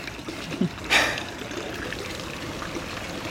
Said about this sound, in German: Und das ist der Brunnen, den man sieht.